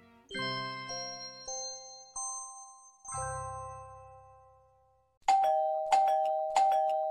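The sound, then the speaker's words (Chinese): An electronic doorbell plays a bright, ringing chime melody of several descending notes, then sounds three more sharp, insistent rings in quick succession. No one speaks. “门铃按了好久，却不见阿华来开门。”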